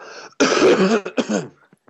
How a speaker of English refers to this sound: sorry, excuse me, I'm gonna have to cough.